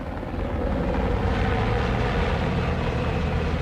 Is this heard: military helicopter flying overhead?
yes